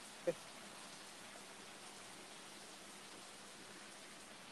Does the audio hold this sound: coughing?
no